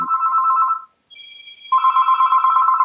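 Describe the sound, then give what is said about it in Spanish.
A telephone ringback tone purrs steadily on an outgoing call to a man, made on the show Bocados a Medianoche, broken by a brief pause and a thin, high electronic beep before the ringing resumes, clear, with no voices. “Voy a llamar a este hombre a ver, a ver qué, podemos sacar.”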